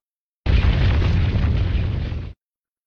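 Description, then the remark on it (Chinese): A heavy stone door grinds and rumbles shut, a loud, deep, steady roar lasting about two seconds that starts abruptly and cuts off suddenly, with no voices. “等大石头合拢了，弟弟就带着金子，推着车子，高高兴兴的回家了。”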